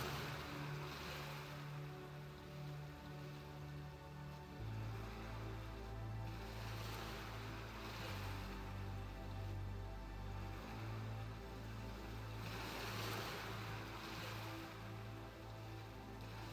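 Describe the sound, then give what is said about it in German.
Soft ocean waves roll in and wash out onto the shore in slow, recurring swells of hiss, layered over a steady low humming drone, with no voices. “Die heranrollenden Wellen, wie sie mit einem Rauschen am Ufer auslaufen, wirken sehr beruhigend auf dich.”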